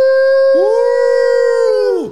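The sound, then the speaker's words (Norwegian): A person imitates a wolf howl with a long, loud, steady tone, and a second howling voice joins halfway through; the two sustained calls overlap before fading out together. “Så jeg tenkte å samle Wolfpacken da, på Sankthanshaugen. Har sånn fast greie der. Stå der og ule?”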